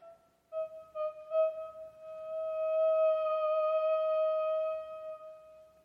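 A theremin plays a steady, pure pitch in short staccato bursts, a few clipped notes articulated with its volume antenna, before settling into one long, smooth sustained tone. It is fairly quiet, with no talking.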